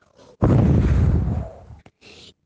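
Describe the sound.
A voice imitates a wolf blowing hard at a house, telling the story of the three little pigs: a loud, breathy, noisy blast lasting over a second that fades out, framed by shorter hissing puffs before and after.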